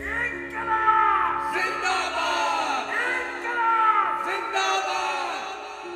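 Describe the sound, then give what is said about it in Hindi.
A large crowd chants the revolutionary slogan "Inquilab" in unison, loud, sustained shouted cries that swell and repeat in several waves over about six seconds. “पर मेरे कानों में तो अब भी इंकलाब का नारा गूंजता रहता था”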